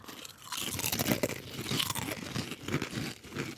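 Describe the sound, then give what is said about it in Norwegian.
Steady crunching of a crisp snack being chewed during a tasting, with repeated bursts of brittle crackling over several seconds and no talking. “Ok, Vi smaker, vi smaker.”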